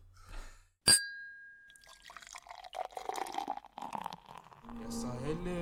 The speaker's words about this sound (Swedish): Nu, häller upp en till.